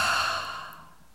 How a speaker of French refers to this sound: Let's take a deep breath in. Inspirez profondément. And breathe out with a heart sound. Expirez avec le son.